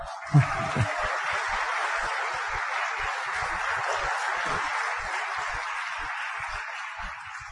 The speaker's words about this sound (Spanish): Aplauso porque va a bajarse.